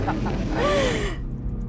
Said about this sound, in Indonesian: kita lagi di jalan sebenarnya ini lagi di mobil jadi kalau agak-agak berisik ya itu suara dari AC mungkin suara mesin mobil mungkin